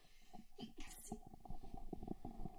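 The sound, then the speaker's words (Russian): A single short sneeze bursts out, a sharp breathy hiss that cuts through quiet, muffled voices and soft background noise. “У нас … чихнула.”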